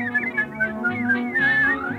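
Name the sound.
person whistling a tune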